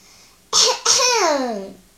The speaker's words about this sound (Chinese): 小依依清了清嗓子，开始上课啦。